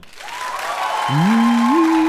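A live crowd applauds steadily and loudly for a contestant in a quick tiebreaker, the clapping swelling after a moment as sustained whoops and cheers rise over it, for about two seconds.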